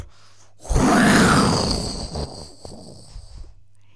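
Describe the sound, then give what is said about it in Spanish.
A person imitates a tiger's roar: one loud, raspy roar that swells suddenly, holds for about a second and a half, then fades into a low rumbling growl. “De repente escuchó un rugido aterrador.”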